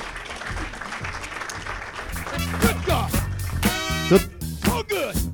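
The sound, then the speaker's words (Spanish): An audience claps for lawyer Bea Calavia as she is invited up, in a steady, dense patter throughout, with whoops and a thumping, tuneful funky music track rising in over the applause about halfway through. “pero primero un aplauso para nuestra abogada de cabecera, Bea Calavia, por favor, un aplauso grande.”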